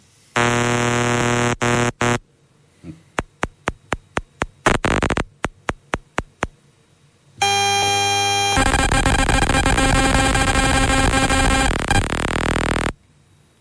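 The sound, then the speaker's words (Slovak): Harsh electronic buzzing of radio signals from a computer wireless mouse, a fitness band, and an ordinary transmission between a phone and wireless headphones: a steady buzz, a run of quick rhythmic pulses, then a loud, dense, grating drone, with no talking. “E, prvý zvuk bude počítačová bezdrôtová myš, druhý bude fitness náramok a tretí bude bežný prenos medzi telefónom a bezdrôtovými slúchadlami.”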